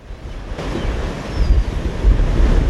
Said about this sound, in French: La mer est démontée, mais le Louise Michel doit rester à quai.